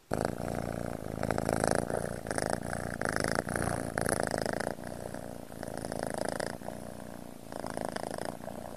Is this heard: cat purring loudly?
yes